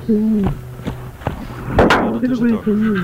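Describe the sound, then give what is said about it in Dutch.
A bird mimics the clanking and creaking of the metal door of the cage it was originally kept in, a sound learned as a young bird, with sharp metallic clacks and squeaky tonal sweeps repeating over a few seconds, fairly loud. Recorded about 35 years ago. “Het is eh, een imitatie van de deur van de kooi waar die oorspronkelijk in gehouden werd.”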